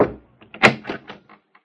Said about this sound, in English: It was nearly nine o'clock before they heard a knock on the door.